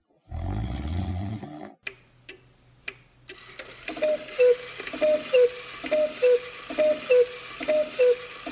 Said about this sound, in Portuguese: A moça dos três olhos ferrou no sono como uma pedra. Roncou toda a noite e não viu nada.